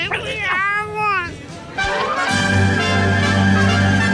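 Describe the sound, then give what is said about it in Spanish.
A loud, drawn-out cat meow with a harsh, aggressive edge, wavering in pitch over about a second, followed by a steady sustained musical tone that carries to the end. “mandémonos un gato fuerte Sí, un gato violento.”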